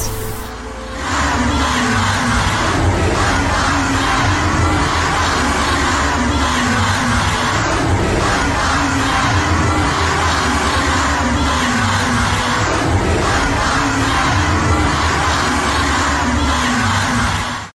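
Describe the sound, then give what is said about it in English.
A large outdoor protest crowd chants and shouts steadily, a dense, loud wall of voices with occasional whoops and yells rising above it, sustained throughout. “We must do everything we can to continue to march, protest, and rally for justice.”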